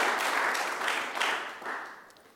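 A crowd claps together in a dense, steady wash of applause, swelling in a few waves and then gradually fading out. The crowd is clapping for the King, God, during a sermon.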